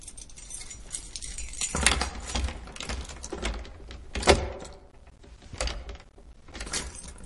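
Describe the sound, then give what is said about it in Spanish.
A key is slid into a locked door, with a run of small metallic clicks, scrapes and jingles, one sharper clack partway through, and no voices. “Introduce una llave en la puerta cerrada.”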